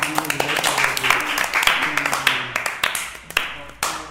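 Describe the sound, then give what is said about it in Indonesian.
Hands clapping at a reunion gathering in a dense, uneven burst of applause, sharp claps overlapping steadily for several seconds, with voices murmuring underneath. “Roto tepuk tangan wow, wow.”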